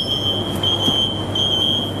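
The anti-theft security gate alarm of the Price clothing store sounds as someone passes between its two gates: a steady, high-pitched electronic tone that holds for about two seconds, with slight wavering, over a low background hum and no talking.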